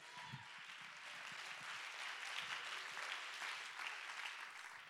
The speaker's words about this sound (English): Somebody clap your hands and give God the praise right now.